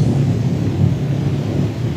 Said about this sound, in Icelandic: Það regnir í Reykjavík.